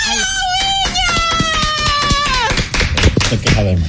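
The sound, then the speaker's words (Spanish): Two people clap their hands in a quick, steady rhythm, with a high, drawn-out wailing voice over the top for most of the stretch and louder scuffling and chatter toward the end. “Mira, nada más tú y yo aplaudimos.”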